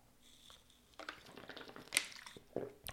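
A wet sip of water followed by a soft swallow, with small moist mouth sounds and faint liquid squishes, no talking.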